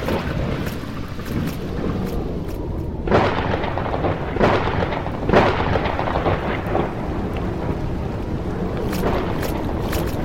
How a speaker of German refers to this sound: ein Gewitter. Ich hab Angst. Sorge dich nicht, Kleines. Das ist kein Gewitter, auch wenn ich dir nicht sagen kann, was sonst da vorgeht.